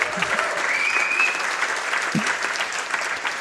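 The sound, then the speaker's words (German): A live audience in a hall claps steadily, a dense, continuous wash of applause at a consistent loudness for several seconds, with a faint whistle and a few scattered voices mixed in. “Ähm, und ihr müsst nochmal klatschen, damit es alle hören.”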